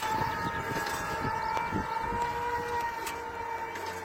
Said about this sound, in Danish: Det er selvkørende markrobotter. De fylder cirka lige så meget på en mark som en traktor. De er bare meget lavere og udstyret med et tag af solceller, der genererer energi til at drive dem ud over stepperne. Og de lyder sådan her.